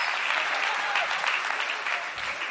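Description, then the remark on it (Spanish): A crowd claps steadily and fairly loudly, a dense wash of many hands applauding at once that holds at an even level throughout with no voices standing out. “Sí, aplaudí, pero no viajás.”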